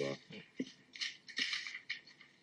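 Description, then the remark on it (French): A sheet of paper listing learning objectives is handled: crisp rustling in several quick bursts as it is picked up, shaken and flattened, with a few soft crinkles between the louder swishes. “voilà de papier comme ça, de papier d'objectifs.”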